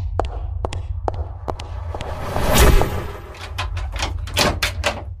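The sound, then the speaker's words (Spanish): A door being closed: scattered sharp clicks and knocks, a heavier rumbling swing and thud midway, then a quick run of latch-like clacks near the end. “¿Y ese sonido? Cierren esa puerta.”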